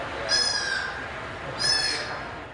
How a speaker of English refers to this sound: That sound is the newest rescued sea otter pup making his exhibit debut at the Shedd. Staff at the aquarium say he's made great progress since arriving in November after being found in Alaska, stranded, wounded, and without his mother.